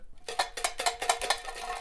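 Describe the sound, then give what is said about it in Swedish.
A tin can shaken before a paper slip is drawn from it, in a quick, steady rhythm: about six bright metallic rattling bursts, fairly loud, with a tinny ring, tapering into a softer continuous rattle at the end. “Framför dig har du en burk. Du ska få dra, skaka den och sen ska du få Vet du, jag har alltid tänkt vad fan gör den här burken här?”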